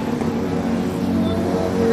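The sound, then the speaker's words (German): A tuk-tuk's small engine drones steadily, a buzzing motor hum holding an even loudness throughout amid busy street noise. “Schon wieder Autos. Autos sind überall. It's another Tuk Tuk.”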